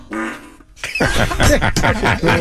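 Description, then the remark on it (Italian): A recorded fart-like noise: a short low buzzing tone, a brief gap, then a longer loud, raspy, sputtering burst that carries on to the end, with no talking. “un rutto di raganella”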